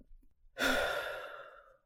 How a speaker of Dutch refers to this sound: Mijn vader zwaait en ik haal adem. Ik probeer alle lucht uit het hele zwembad in mijn longen te krijgen.